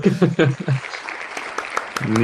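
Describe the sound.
A short burst of light, scattered applause for someone winning fifty euros, with a few distinct claps over a soft hiss, framed by a voice talking at the start and again at the very end.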